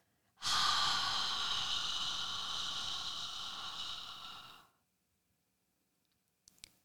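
A single long, slow, audible exhale, breathy, lasting about four seconds and fading out, followed by quiet and a faint click.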